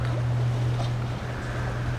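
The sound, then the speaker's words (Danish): Swells lap and slosh against a harbor bulwark, coming in across the current of the water in a steady, continuous wash, with a low droning hum running underneath throughout and no voices. “Så kommer dønningerne skvulpende ind på tværs af strømmen og slår op om boldværket.”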